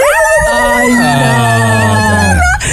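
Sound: voice imitating dogs howling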